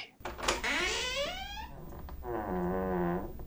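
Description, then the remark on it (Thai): A house door is slowly pushed open, creaking in two drawn-out, groaning squeals: first a rising, wavering creak, then a brief pause and a steadier, lower one. Fairly loud, with no voices. “มันบอกตัวเองแล้วรวบรวมความกล้าที่มีอยู่น้อยนิด ค่อยๆผลักประตูบ้านเข้าไป”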